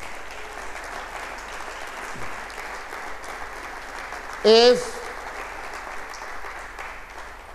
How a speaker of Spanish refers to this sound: Del otro aplauso a Cristo entonces.